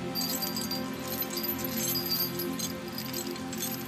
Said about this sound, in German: Ein Schlüsselbund, das ist es, was du hörst.